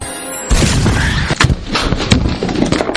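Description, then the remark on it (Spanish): An explosion spreading through a shopping mall: a sudden loud blast erupts after a brief quiet start, followed by a sustained roar of rumbling and crackling with several sharp bangs punctuating the chaotic din. “La explosión se expande por todo el centro comercial”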